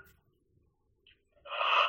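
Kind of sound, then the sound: human body sound, person yawning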